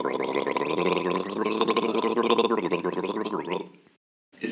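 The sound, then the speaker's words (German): Someone gargles water with the head tilted back, to move the uvula and practise the uvular R, in a long, bubbling throaty rattle lasting about four seconds, fairly loud, then breaks off with a brief pause before a short burst resumes. “Ich habe zu viel Wasser genommen. Das klang jetzt schon sehr gut. Du musst nur aufpassen, dass du dich nicht verschluckst.”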